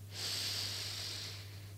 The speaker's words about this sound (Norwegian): Pust dypt inn gjennom nesen.